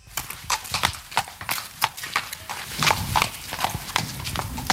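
Hooves of Lola, a 10-year-old mare ridden by a dressage rider from Montreux, clip-clop in a steady, even rhythm on a hard surface, each strike crisp, with no voices over the sharp repeated footfalls.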